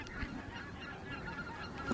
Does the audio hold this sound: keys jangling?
no